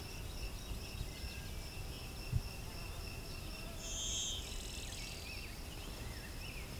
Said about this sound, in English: It's highlighting blue-wing warbler.